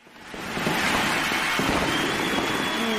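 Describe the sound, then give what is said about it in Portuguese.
A fireworks sound effect: fireworks crackle and pop over a steady hissing roar that swells in during the first half second, with scattered sharper bursts and a faint whistling tone near the end. “Eu peço até fogo de artifício, palmas aí.”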